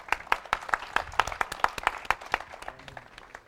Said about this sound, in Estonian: tule ette, teeme aplausi.